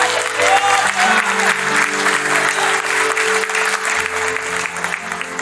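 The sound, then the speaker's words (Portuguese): An audience claps steadily and loudly for several seconds, applauding the Lord, a dense wash of applause over sustained low keyboard chords playing beneath it. “Você pode aplaudir o Senhor por isso?”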